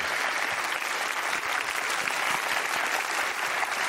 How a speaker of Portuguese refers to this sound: Aqui com a gente, vamos aplaudir o Casulo.